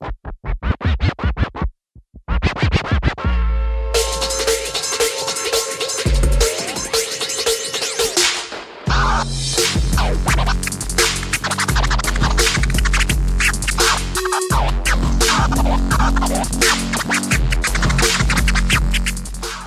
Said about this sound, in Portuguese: Aí eu entrei no hip hop DJ. O que, que é essa performance? Aquelas manobras, né, nos tocadiscos.